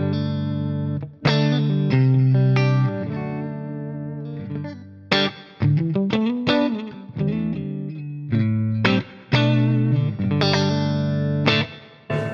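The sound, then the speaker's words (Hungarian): A clean electric guitar played through a 30-watt tube amp with the bright setting on: a run of single notes and ringing chords with a bright, harmonically rich tone, some notes sustaining, others cut short, with no voices. “nem fáj a Bright, még, még, még így se szerintem, nem?”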